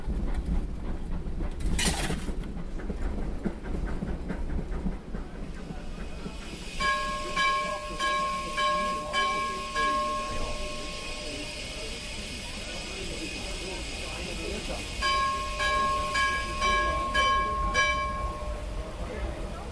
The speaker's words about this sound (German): Stolz schauen sie am Kamin vorbei nach vorne. Man sieht's. Dampflokomotive fahren ist eine Leidenschaft.